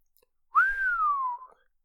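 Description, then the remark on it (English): A man gives a single long, low whistle, rising briefly and then gliding slowly downward in pitch for about a second, clear with no talking around it. “Then he whistled long and low.”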